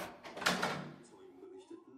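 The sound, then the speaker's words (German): A person arriving home unlocks and opens the front door: a short burst of clattering metal and wood, followed by a softer, drawn-out creak as the door swings, with a faint murmur underneath. “geht nach Hause und schließt die Tür auf”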